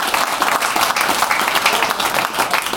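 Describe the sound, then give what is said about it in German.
Steady, dense applause from many hands, a bright continuous patter of claps at an even loudness with no gaps, and only a faint hint of voices underneath. “Müssen wir mal einen ordentlichen Applaus geben.”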